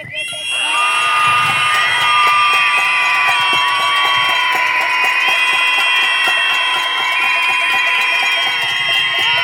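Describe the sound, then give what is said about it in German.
A protest crowd in Austria screams together against femicides, a loud, sustained wall of high-pitched shrieking voices that holds steady for several seconds without a break. “Dafür schreien wir jetzt.”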